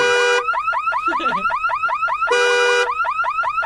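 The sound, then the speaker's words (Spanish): A handbag anti-theft alarm blares, a steady piercing electronic tone giving way to a rapid run of rising chirps, then the tone and chirps repeat, loud and unbroken, with no talking. “Que por cierto, lo tengo con alarma porque luego se lo roban.”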